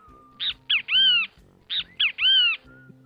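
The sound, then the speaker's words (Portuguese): A great kiskadee (bem-te-vi) calls its loud three-part cry twice, two short sharp notes followed by a longer drawn-out one, clear with no talking. “O Bentivi, ó.”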